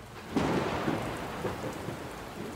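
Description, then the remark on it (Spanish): A thunderstorm: steady rain hiss fills the air while low, rolling thunder rumbles in pulses, starting suddenly and lingering throughout with no voices. “Procuraba ir en los periodos más lluviosos del año, poniendo mis intentos de renglones en manos de la tormenta, de su sonido, de su olor, de su encharcado eco, de su alborotado río.”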